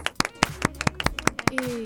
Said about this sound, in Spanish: Señor, aplauso.